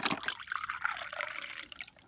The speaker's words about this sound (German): Aber du bekommst jetzt auch natürlich ein Tässchen Tee, aber Tee-Experte bist du schon. Ich gieße dir mal ein.